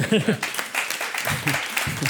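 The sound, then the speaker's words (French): Audience applause for a municipal announcement that the protected land area has reached 18, a dense patter of many hands clapping steadily for about two seconds at moderate loudness, with a brief voice or laugh at the very start. “On peut applaudir là-dessus.”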